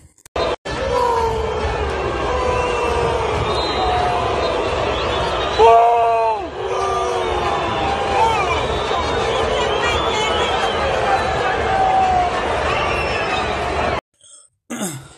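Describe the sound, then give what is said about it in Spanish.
A large stadium crowd of discontented fans boos the players of the León team steadily, a dense roar of jeering voices with drawn-out wavering tones that holds loud for about fourteen seconds before cutting off abruptly. “Bueno, estos abucheos son para los integrantes del equipo León.”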